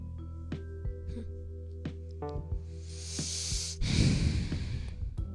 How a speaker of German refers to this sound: Ihr hört jetzt alles, was ich schnaufe oder so